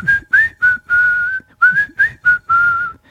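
A clear, close whistled tune of about eight short phrases, with pitch gliding up on a few notes and held on others, steady and fairly loud with no talking.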